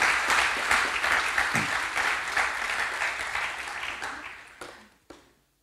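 Hearty applause from an audience in the Chapel for people there for the first, second or third time, a dense wash of many hands clapping that holds steady for several seconds, then thins out and ends with a few last scattered claps.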